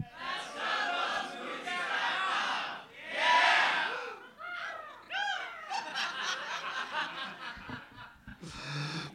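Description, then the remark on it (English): An audience cawing and screeching in imitation of an eagle after the website name douglovesmovies.com is said, loud overlapping shrill cries rising and falling, mixed with scattered laughter and chuckles. “But yeah, people have decided to caw at the end of that, and I, I don't know.”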